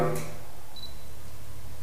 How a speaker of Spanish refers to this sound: la cámara está haciendo el enfoque automático en donde se lo pido en algunas ocasiones cuesta un poquito de trabajo